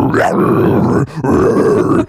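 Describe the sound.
A voice imitates the deep, guttural deathcore growl that a singer makes at a bear while wrestling it: two rough, loud snarling bursts separated by a brief pause, raspy and harsh throughout.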